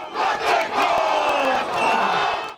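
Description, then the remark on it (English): A group of protesters performs an impromptu haka near the northbound motorway on-ramp by Gillies Ave: loud, rhythmic and forceful shouted calls sustained throughout with sharp percussive accents, crowd noise blending underneath. “Newshub filmed protesters throwing water at oncoming traffic before an impromptu haka was performed.”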